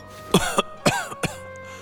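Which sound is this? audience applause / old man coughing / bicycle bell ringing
old man coughing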